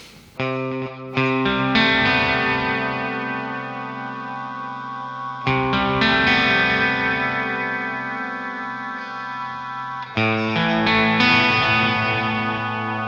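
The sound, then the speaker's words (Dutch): Electric guitar chords played through an octave-up pitch effect that works on whole chords, strummed and left ringing in three long swells, each sustaining for several seconds, with a bright shimmering layer an octave above the chord; no voices. “En deze werkt dus eigenlijk voor hele akkoorden.”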